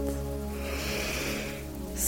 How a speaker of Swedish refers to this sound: Blunda, andas in djupt.